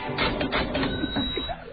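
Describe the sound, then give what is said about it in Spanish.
A cash register sound effect: a dense, steady run of mechanical clattering and whirring, like keys and a printing mechanism, lasting under two seconds with no voices. “vamos a la caja registradora, esto es A los Números de Jairo Strache.”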